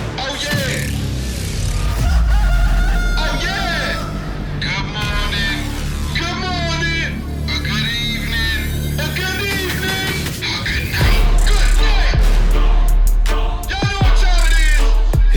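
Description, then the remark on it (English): A loud, upbeat TV character theme song plays continuously, with the actor who plays the character rapping and singing over a thumping bass-heavy beat and busy layered instrumentation. “he actually does his own theme here.”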